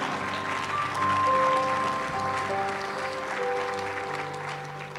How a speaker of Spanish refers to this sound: Vamos, dele un fuerte aplauso al Señor.